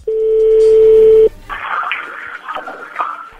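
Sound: telephone number being dialed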